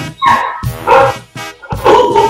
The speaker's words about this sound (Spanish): Ahí están los perros ladrando, ¿no?